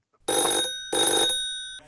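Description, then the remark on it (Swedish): A telephone bell rings as Loket Olsson places a call from Bingolotto in Göteborg. It rings in two loud bursts with a brief pause between them, each a bright metallic jangle, followed by a faint click as it stops. “Loket Olsson ringer upp.”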